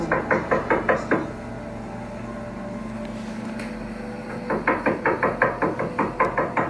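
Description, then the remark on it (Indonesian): Two bursts of rapid, sharp knocking on a door, several quick raps each, separated by a pause of low droning background noise; the knocks are fairly loud. “Nah dari video yang viral ini, banyak orang yang percaya bahwa makhluk yang mengetok pintu itu adalah makhluk lampor.”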